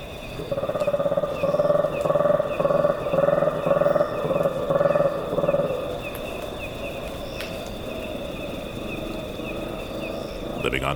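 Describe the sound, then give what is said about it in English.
Primate troops' contact calls in the Kakamega Forest in Kenya, as the troops wake, regroup and start their search for breakfast: a loud run of rhythmic, throaty, roaring calls pulsing for several seconds, then giving way to a steady high insect drone and softer jungle ambience. “The troops' vocalizations echo across the jungle canopy as they regroup and start their search for breakfast. These contact calls were recorded by Douglas Quinn.”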